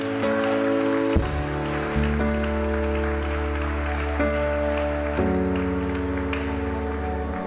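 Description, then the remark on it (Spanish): An audience applauds God in a steady, dense wash of clapping, layered over sustained organ-like keyboard chords that shift every second or two, with no one speaking. “Denle un aplauso a Él.”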